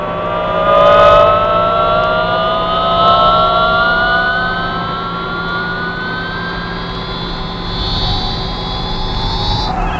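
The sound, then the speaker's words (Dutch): An eerie electronic radio signal from space, picked up on a spacecraft's radio through a new space-modulating device, drones steadily, its layered whining tones slowly gliding in pitch over a low constant hum, loud and unbroken throughout with no voices. “Zal ik nou de radio proberen? Oké, ga je gang maar. Eerst dat nieuwe ruimte modulerende apparaat maar, hè?”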